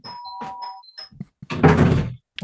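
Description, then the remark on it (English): An electronic doorbell at a front door chimes a short melodic tune, followed by a few dull thumps and a louder, noisy burst of rustling commotion. “And do you need to get your front door?”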